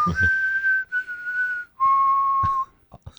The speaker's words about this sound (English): What did you watch the Mockingjay mm-hmm. last night? you must have that whistle tune, …. Can you play that for us?